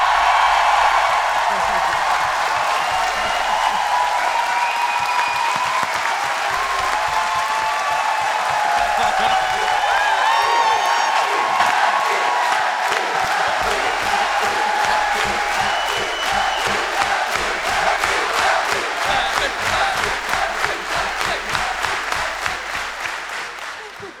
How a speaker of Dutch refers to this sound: En nu mag het applaus iets luider, want een van de grondleggers en gigantische organisatoren van het festival